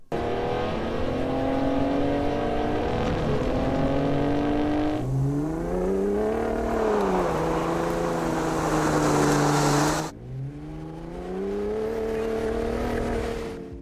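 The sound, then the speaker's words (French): A Raptor pickup truck's deep, V8-like exhaust roar through its exhaust system, loud and steady, rising and falling in pitch as the engine revs across three passes. No one speaks. “Euh, là, ils disent que le Raptor a vraiment un son plus agressif. il se rapproche plus d'un V8.”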